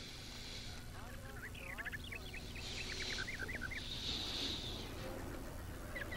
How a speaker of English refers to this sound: But enough with the fucking birds.